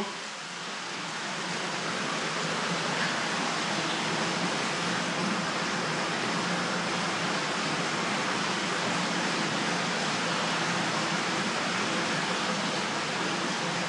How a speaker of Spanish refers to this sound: El ruido del agua del arroyo que corre a su lado se lo impide.